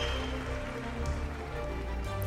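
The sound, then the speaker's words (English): Heavy rain pours down steadily in a raging gale, a dense, continuous hiss of drops drumming on a surface with a low rumbling undertone, loud and unbroken throughout, with no voices. “The airship gained altitude, but the gale and rain was still raging.”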